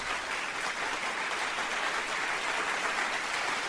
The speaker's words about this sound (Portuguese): Salva de palmas